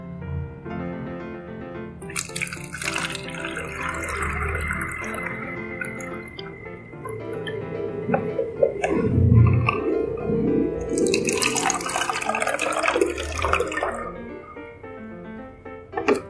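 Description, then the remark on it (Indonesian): Water splashes and gurgles as it is poured into five bottles, filling each to a different height, with a rising trickle and drips in two bursts separated by quieter sloshing; no one speaks. “Nah, pastikan 5 botol ini terisi dengan air dengan ketinggian yang berbeda.”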